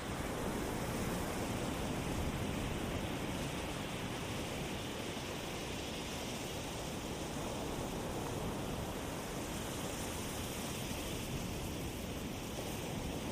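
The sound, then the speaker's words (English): A steady, continuous rush of surf on a beach washes over the whole stretch, a dense roar of breaking water with no distinct individual crashes and no voices. “and just like the waves crashing on the beach, your breath comes in and your breath goes out.”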